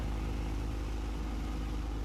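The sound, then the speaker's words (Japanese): A steady, low diesel engine rumble drones on without a break, deep and continuous, from several boats passing along a river near the sea in the early morning. No voices, just the heavy mechanical hum. “朝早い時間に船がいくつも通るディーゼルエンジンの低い音がまだ眠りの淵でもたついてる街を這うようにやったあれが苦手だった”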